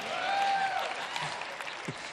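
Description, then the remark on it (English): Steady audience applause fills the whole stretch, a dense wash of many hands clapping at an even, fairly loud level, with a faint tonal whistle-like streak early on and a brief low murmur near the end. “I didn't do a thing, and I'm getting clapped.”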